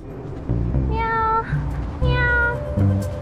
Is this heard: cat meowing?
yes